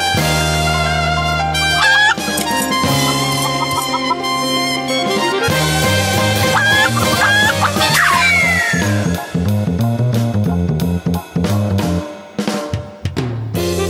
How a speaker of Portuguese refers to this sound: abertura pra gente, faz favor.